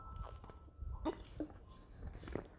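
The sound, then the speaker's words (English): Quiet mouth sounds of someone sipping and swallowing water, a few soft wet gulps and clicks spaced over a couple of seconds with no talking. “sorry, I had to take a sip of water.”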